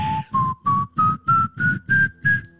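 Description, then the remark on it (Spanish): Someone with dry lips whistles a rising musical scale of seven short, separate notes, each a step higher than the last. The tone is airy and breathy, with a noisy rush under every note. “no pude chiflar bien.”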